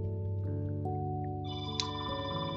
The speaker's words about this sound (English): I'm so sorry about that ringing. It'll go off a few more times. The joys of recording, right?